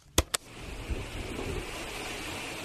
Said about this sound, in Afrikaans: Ek dink dis die geluid van die wind wat deur die bome waai. Dis reg. Partykeer is die wind sag en rustig soos hier.